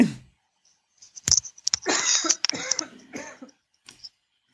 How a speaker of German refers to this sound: Ich muss mal ganz ja, kurz husten. Alles gut.